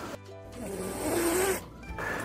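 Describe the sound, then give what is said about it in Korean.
A cat hisses defensively as a warning not to come closer, mouth open and lips curled back, forcing air out fast and hard: a harsh, breathy burst lasting over a second, then a shorter second hiss, fairly loud, with no talking. “다음 아홉 번째는 하악질. 하. 일명 히싱 사운드라고 하는데요.”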